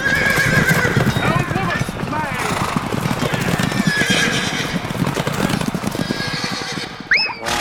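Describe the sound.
Hooves clip-clop steadily and loudly throughout while a horse neighs repeatedly, ending with a sharp rising whinny; voices are mixed into the busy scene.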